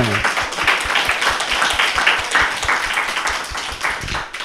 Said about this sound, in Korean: 저희 두 분께 박수를 한번 좀.